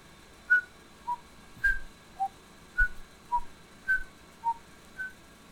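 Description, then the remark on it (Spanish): A smart speaker alarm rings in a steady repeating pattern of clear tones alternating between a higher and a lower pitch, about ten beeps at moderate volume with no voices. “Bueno, si voy a poner otra alarma a las 3.11.”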